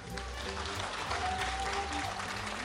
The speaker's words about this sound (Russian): Ваши аплодисменты.